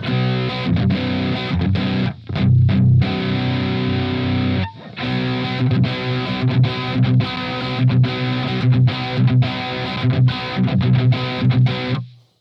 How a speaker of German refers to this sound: Da hört man keinen Unterschied, weil das halt schon ähm, von sich aus komprimiert ist. Ne? Dieses verzerrte Signal, das kann man sich quasi da kann man sich den Kompressor sparen.